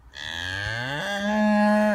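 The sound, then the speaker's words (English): A single long, loud cow moo, starting low and stepping up in pitch midway before cutting off after about two seconds. No one speaks. “after all you can't furlough a cow”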